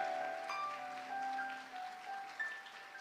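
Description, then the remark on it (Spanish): An audience claps loudly for the King for about three seconds, a dense, continuous patter of applause with sustained musical tones ringing underneath and no voices. “Dele palmas fuerte al rey, hermano.”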